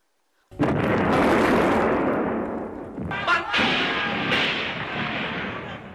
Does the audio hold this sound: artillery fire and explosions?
yes